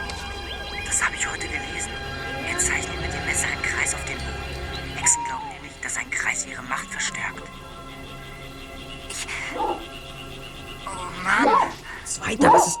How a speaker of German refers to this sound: Hier ist ein Hund. Ein ziemlich großer Hund.